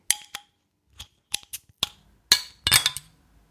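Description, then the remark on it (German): A bottle of American IPA Earl Grey beer from Brova Revolta of Krakow being opened: a string of sharp metallic clicks and glassy clinks at irregular intervals, ending in a louder cluster of snaps with barely any hiss. No talking. “Hier kommt das Geröff von dem American IPA Earl Grey von Brova Revolta aus Krakau.”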